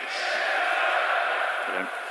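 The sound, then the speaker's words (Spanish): Finnish and Danish football fans in a stadium chant back and forth across the pitch, one end shouting a player's first name and the other answering with his surname, in a loud, sustained roar of many voices filling the whole space with a dense wall of sound. “Un, gol grita el nombre del jugador, que es Cristian, y responde el otro gol eh, con el apellido Ericsson”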